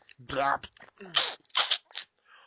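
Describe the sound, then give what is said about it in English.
A voice imitates people eating sloppily with their fingers: open-mouthed chewing with several wet, crunchy smacking bursts in quick irregular succession, fairly loud, with vocal grunts mixed in. “horrible slopping open crumbs, chewing.”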